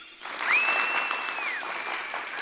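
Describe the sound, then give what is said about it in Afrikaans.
An audience claps hands in a steady, dense burst of applause that carries on throughout, with a thin high whistling tone rising briefly over the clapping near the start. “Almal klap hande.”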